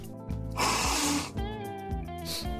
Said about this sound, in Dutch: Want voordat je die zelftest doet, moet je je neus leegmaken door een aantal keer te snuiten.